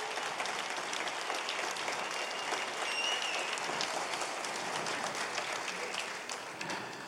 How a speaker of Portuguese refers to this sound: Para Jesus e para vocês, dê uma forte, forte salva de palmas.